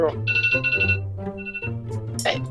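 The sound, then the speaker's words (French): A phone rings with a bright, warbling electronic tone, repeating in quick bursts at moderate volume, with some voice-like sound mixed underneath. “Ben ça a l'air et c'est moi, puis ça sonne sur”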